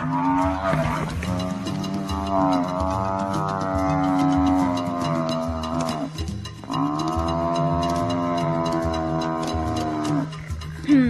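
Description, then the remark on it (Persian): Two long, deep mooing calls from a buffalo, each a sustained low bellow lasting several seconds with a brief pause between them, loud and with no talking. “بوفالوها جانورانی هستند از شاخه تنابداران رده پستانداران راسته جفت سمسانان تیره گافسانان”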